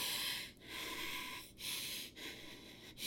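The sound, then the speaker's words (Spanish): A voice imitates short, shallow gasping breaths, several quick airy inhales and exhales in a choppy rhythm with brief pauses between them, fairly quiet, with no talking. “Yo cuando lo volteaba a mirar, o sea, no podía respirar. Yo no podía respirar completo.”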